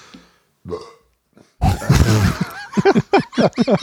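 A loud, drawn-out burp rumbles for about a second after a couple of brief vocal noises, followed by a quick series of short, choppy voiced sounds.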